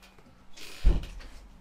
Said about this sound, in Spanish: Me cerró la puerta.